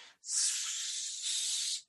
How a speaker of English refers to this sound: of a cauterization type burn. Almost like the steaming of like extreme heat meeting water.